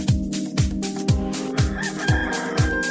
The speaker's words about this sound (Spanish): Ya llegaron los gallos de Gastón Mascareñas.